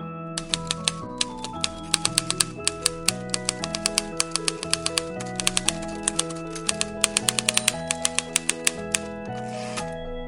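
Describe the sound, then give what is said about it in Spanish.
Sharp typewriter keys clack in quick, uneven bursts as someone types a story, sometimes rattling in dense runs, with a lever pushed at the end of each line to keep writing, over a steady, softly stepping musical tone that continues underneath throughout. “Diana pensaba que las teclas eran muy ruidosas y cada que terminaba el espacio en la hoja tenía que empujar una palanca para seguir escribiendo.”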